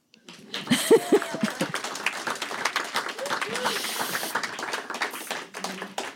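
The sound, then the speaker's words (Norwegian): An audience at a poetry event applauds poet Synnøve Persen, honoured for her work in art and culture: dense, steady clapping that starts abruptly and carries on for several seconds, with a few brief voice-like tones mixed in near the start. “Applaus.”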